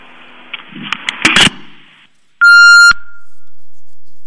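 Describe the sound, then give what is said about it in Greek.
A few clicks and handling noises, then a loud, sharp electronic telephone tone sounds once for about half a second, followed by a steady low line hiss after the caller hangs up. “παίρνουν τηλέφωνο και το κλείνουν.”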